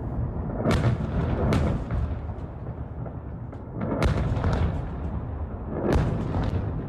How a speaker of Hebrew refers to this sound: הנה תחילה כמה קולות מאותה תקיפה הלילה.